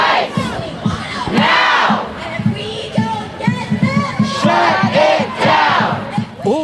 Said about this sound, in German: Ein betäubender Lärm vor dem Supreme Court in Washington. Hunderte Demonstranten haben sich versammelt, um gegen das drohende Aus des fast 50 Jahre alten Rechts auf Abtreibung zu protestieren.